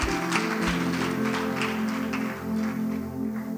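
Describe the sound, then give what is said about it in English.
A crowd claps steadily and energetically for several seconds during a sermon, giving the Lord a clap of faith, the dense patter of many hands layered over sustained musical tones, with no talking. “Give the Lord a mighty clap of faith.”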